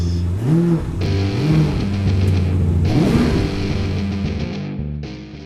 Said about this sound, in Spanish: ¡Arrancamos motores!